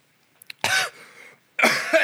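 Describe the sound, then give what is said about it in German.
Two harsh, forceful coughs from a person with something stuck in their throat, separated by a raspy breath in between, with a couple of small throat clicks just before the first one. “Ey, mir steckt gerade etwas im Hals, sorry.”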